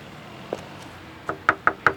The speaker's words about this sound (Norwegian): En gråkald desembermorgen banker jeg på hos Grete igjen.